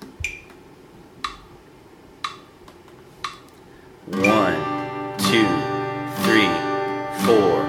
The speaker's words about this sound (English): Quarter note strumming means you're going to only do one down strum per beat. At this tempo, that will sound like this.